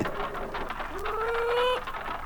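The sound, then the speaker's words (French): A green parrot calls out in a short, harsh squawk that rises into a drawn, nasal tone with strong harmonics, over a faint background hiss. “Bien sûr, c'est le perroquet vert. Il répète ce qu'il entend dire.”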